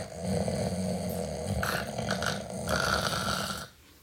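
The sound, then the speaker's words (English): A voice imitates loud snoring, a long rasping, rattling drone that holds steady for several seconds with a few gurgling bursts before cutting off. No words are spoken. “You need a CPAP machine? Get some sleep apnea going.”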